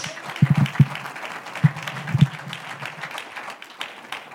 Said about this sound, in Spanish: Vamos a darle un aplauso a ese Dios.